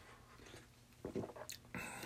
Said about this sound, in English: Just had a sip of coffee.